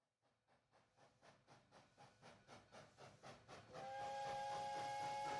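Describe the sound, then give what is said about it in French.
A steam train carrying Vincent van Gogh to Auvers-sur-Oise chugs with steady, rhythmic puffs that build in pace, then a loud, sustained steam whistle blares over the rumble for the final seconds. No voices are heard. “Trois jours après son arrivée à Paris, Vincent se rend à Auvers-sur-Oise. Le trajet en train lui a rapide.”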